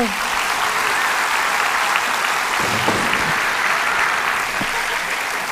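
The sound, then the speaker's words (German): Steady applause from a live audience, dense crackling claps at a constant loud level for several seconds, with a few voices faintly mixed in. “Es ging um Maxwells Leiche und dafür einen kleinen Applaus für deine, also.”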